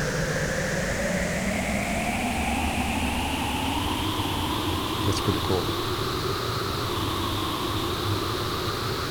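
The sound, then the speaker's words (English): Steady, hissing synthesizer noise with resonant bands gliding slowly and continuously upward as a sweep oscillator running at 0.03 hertz sweeps it with the resonance turned up; a voice briefly speaks partway through over the constant drone. “So if we just wait patiently, that sweep oscillator, which is running at 0.03 hertz, here it goes.”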